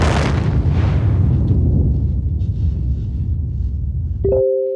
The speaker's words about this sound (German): Es ist so laut bei uns. Ich höre, wie die Raketen fliegen, wie die Abwehrsysteme arbeiten. Der Boden bebt bei uns.